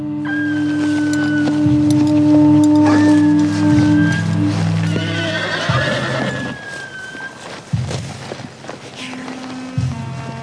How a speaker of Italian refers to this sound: Prendiamo i cavalli e andiamocene.